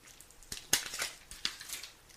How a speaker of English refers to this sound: As a matter of fact, I'm about to take another sip of water.